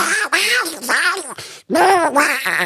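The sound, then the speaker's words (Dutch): A person imitates Donald Duck, producing a rapid run of raspy, buzzy quacking syllables, with one brief pause midway before the squawky babble resumes. “Ja, ik, ik, was, ik was vijf jaar toen deed ik Donald Duck na, weet je.”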